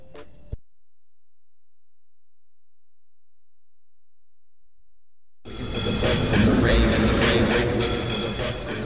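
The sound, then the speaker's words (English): A short click, then a long stretch of silence before a loud train roars in along the rails at a station platform, a dense rumbling rush with metallic squeals and rattling that builds and holds. “Stay behind the blue platform edge and relax.”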